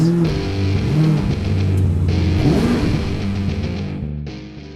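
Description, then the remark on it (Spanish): A car engine roars loud, revving up and down in pitch several times before the sound drops off abruptly near the end. “Y sin, más, más, arrancamos motores.”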